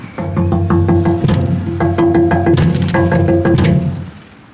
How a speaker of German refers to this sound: Das war äh, auf jeden Fall ein Geräusch und Falls Sie sich mal gefragt haben, wie klingt es in diesen Mülleimern, die hier an der Straße immer sind, so klingt es da drin.